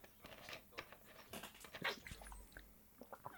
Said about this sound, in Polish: O takie coś to po prostu ja piłem wodę z mojego bidonu, ale teraz twierdziłem, że to będzie to jest zbyt wkurwiające.